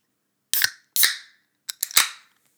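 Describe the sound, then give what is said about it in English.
Several sharp, hissy pops, a pair of them followed by a quick cluster of three, each trailing off in a brief fizz, like beer bottles being cracked open. No one speaks. “Ooh, it's fizzing up a little bit.”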